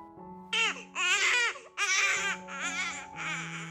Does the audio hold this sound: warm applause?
no